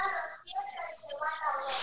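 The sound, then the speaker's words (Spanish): High, strained voices of young girls carry through the whole stretch, loud and continuous with brief dips, like kids yelling in the background rather than right at the microphone. “Perdón, es que son las nenes, son las nenes.”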